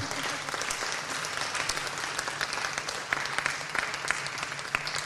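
An audience applauds the panel steadily, a dense wash of many hands clapping at once that stays loud and even throughout, with scattered sharper individual claps standing out from the crowd.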